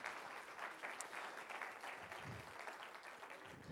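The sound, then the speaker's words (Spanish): A church audience applauds loudly for the Lord at the pastor's urging, a dense, steady wash of many hands clapping that holds evenly for several seconds with no pauses, full. “La aplauso fuerte, Señor. Dáselo fuerte, Señor.”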